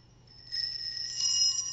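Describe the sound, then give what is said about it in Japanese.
A wind chime of hanging threaded metal screws and bolts rings out in a few soft, overlapping metallic strikes, bright tones sustaining and layering over each other. Fairly quiet, with no voices. “これはね、実はね、ネジとかボルタがぶら下がってるんですよ。”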